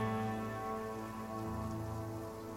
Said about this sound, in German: Ich gehe mal, geh mal davon aus, dass es draußen regnet, wie immer in Blutstadt. Ja, es regnet immer. Es regnet.